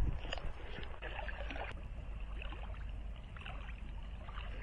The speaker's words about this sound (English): It's not the sound I was expecting to hear, I have to say, on uh, my Warwickshire way, was the uh, the lapping sounds of what well, sounds like the seaside, but in, in fact, it's the waves moving down the uh, reservoir